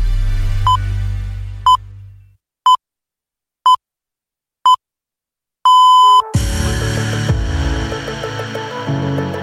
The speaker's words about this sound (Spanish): Pues ya tenemos ahí esas señales de las ocho y media de la mañana.